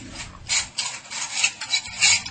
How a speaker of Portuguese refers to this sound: coloque a bandeja na mesinha, por favor